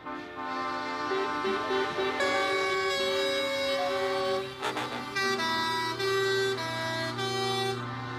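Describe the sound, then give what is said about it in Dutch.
Loud, sustained truck air horns blare almost continuously, overlapping in layered tones over a rumbling engine, with a brief dip in the middle before the honking resumes just as strong, at a truck run in Twente where lorries drive a route of about 150 kilometres carrying people with intellectual disabilities as passengers. “Hier is vandaag de truckrun uh, van de truckentruckers.”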